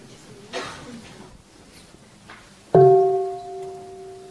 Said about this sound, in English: And then you invite the bell to produce the full sound.